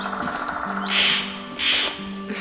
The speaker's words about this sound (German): Was ist denn das für ein hässiger Vogel?